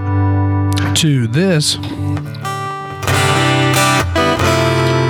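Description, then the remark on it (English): An acoustic-electric guitar, its tone knob switched to a different setting, plays chords and bending notes with a processed, effected tone, loud, while a voice briefly talks over it. “It's me switching a knob and getting a whole different guitar.”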